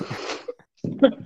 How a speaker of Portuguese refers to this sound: Aí que eu acabei de abrir. Não, peraí, que eu abri. Eu acabei de abrir uma cerveja, ela tá chorando aqui.